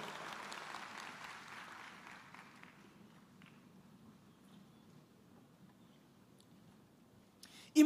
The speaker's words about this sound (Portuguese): Tome seu assento e aplauda Jesus bem forte.